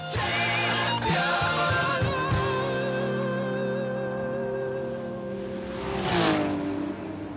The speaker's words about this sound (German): Scharfe Kurven und PS. Motorsport in Nürnberg.